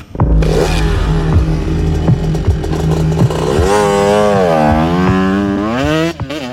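A motorcycle engine runs loud, idling with a steady clattery pulse, then revs in repeated rising and falling surges as it pulls away carrying a man and a passenger along a hot tarred road; no voices.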